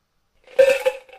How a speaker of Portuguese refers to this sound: Então, é 9 ou mais para você conseguir. Rola o dado aí.